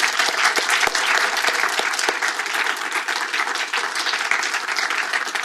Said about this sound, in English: Ladies and gentlemen, that's all we've got time for. I'd like to give a big round of applause